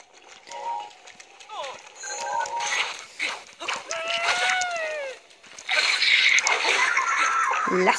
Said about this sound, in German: Esel. Nice.